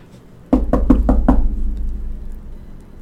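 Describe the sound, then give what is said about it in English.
Five quick, firm knocks on a wooden door in an even rhythm, fairly loud, followed by a low rumbling room tone as the sound fades. “There was a knock on the door, and Nico di Angelo came huffing into the parlor, his cheeks bright red from the cold.”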